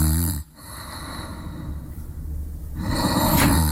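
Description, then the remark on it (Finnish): A voice imitates the snoring of a driver asleep in a Tesla with the window open: a long, rattling, nasal snore that grows louder toward the end, with no talking. “on muuten kyllä tota ollut vahva, tai siis niinku vahva korsaus kahden, kahtien lasien läpi tullut.”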